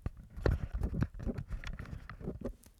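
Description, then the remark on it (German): A plastic device is handled and passed from the left hand to the right, producing a quick run of irregular hollow clacks and knocks with soft rubbing in between, fairly loud and without any voices. “Ihr müsst aufpassen, wenn ihr das Ding benutzt, es ist Plastik.”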